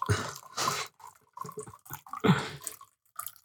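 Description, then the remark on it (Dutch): Water is poured into a glass, coming in a few uneven splashy bursts with short gluggy pauses between them, ending in a brief final trickle. “Ik ga even meteen mijn water inschenken.”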